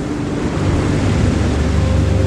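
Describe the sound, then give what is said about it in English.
A steady, loud roar of waves washing onto a beach, with a deep rumbling low end and continuous surf hiss. No voices are heard. “Every morning I wake up and, if, and I come down to the beach and it's, yeah, stand here for a moment just to take in the beautiful views”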